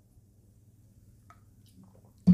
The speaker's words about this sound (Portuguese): Gole d'água.